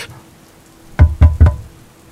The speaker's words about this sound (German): die nachts herumlaufen und gegen die Fenster klopfen